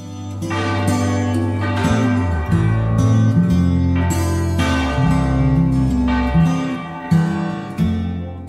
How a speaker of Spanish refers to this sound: donde se yergue esta iglesia que ya fue un templo pagano, usada como granero, teatro, prisión y polvorín, doblan las campanas católicas para celebrar la vida.